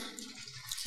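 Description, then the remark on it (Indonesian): A soft, steady hiss of rain falling outside, faint and continuous, with no voices over it. “Jadi ya Ngomong-ngomong ini suara hujan masuk gak sih?”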